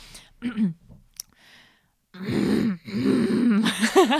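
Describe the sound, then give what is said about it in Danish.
A voice imitates a woman's strained pushing grunts in labor, the sounds made when the baby has moved down through the pelvis and presses on the pelvic floor muscles: a few short effortful sounds, then longer, louder groaning strains. “nogle bestemte lyde, der kan tyde på, at det her er et barn, som er kommet længere ned igennem bækkenet”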